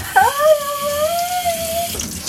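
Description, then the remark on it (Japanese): Water runs steadily from a tap as someone washes their hands, a continuous hiss with a thin whistling pipe tone gliding through it for a couple of seconds. No one speaks. “手洗うね水の音が気にしても気にしないでねちょっと失礼”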